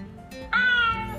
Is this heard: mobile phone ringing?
no